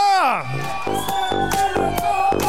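A loud crowd at a club cheers and whoops for a 30th birthday, with rising shouts at the start and steady rhythmic thumps pulsing roughly twice a second underneath the noise.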